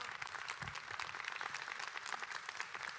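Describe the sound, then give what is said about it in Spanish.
Audience applause: a steady wash of many hands clapping at once, dense and crackly, holding at an even level for the whole stretch with no voices on top. “eso no se merece un aplauso”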